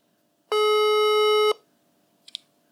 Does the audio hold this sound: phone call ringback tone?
yes